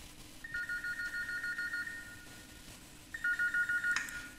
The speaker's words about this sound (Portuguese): Olha, já começa na abertura, o telefone tocando, gente. Olha a nostalgia dessa desgraça.